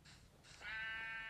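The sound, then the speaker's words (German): A sheep bleats once in a video game, a short breathy lead-in swelling into a sustained nasal baa with strong harmonics, fairly loud, heard alone without talk, a game-style animal sound effect. “Verpiss dich, du Schaf.”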